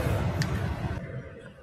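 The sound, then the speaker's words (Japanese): A loud, steady car air conditioner roars inside a car on a hot day, a dense blowing hum with heavy low rumble; its hiss thins out partway through while the drone continues, with no voices. “エアコンの音うるさいでしょごめんなさいね。”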